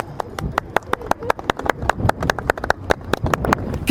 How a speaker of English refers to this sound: So as we go past, I think we should have a round of applause. Right, come on.